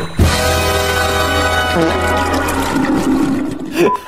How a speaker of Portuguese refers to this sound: solta a vinheta aí